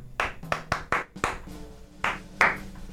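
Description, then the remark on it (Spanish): A short rhythmic pattern of hand claps used as an example of communicating without a shared language: about seven sharp, crisp slaps in a quick syncopated figure with a brief pause before the last two. No voices are heard. “Con aplausos, que era, pues esta es una manera de comunicarse, ¿no?”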